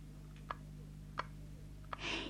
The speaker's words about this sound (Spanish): Estos ya estaban durmiendo, cansados del ensayo, y en eso oyeron unas pisaditas.